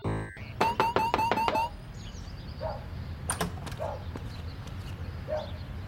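A quick, evenly spaced series of about six sharp, loud knocks on the door of a house, followed by a few fainter scattered taps against a quiet background.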